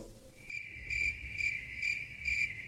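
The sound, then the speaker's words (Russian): A crickets sound effect: crickets chirp in a steady, high-pitched trill with a regular pulsing rhythm, set against a quiet low rumble and no voices. “Сверчков вставим сюда.”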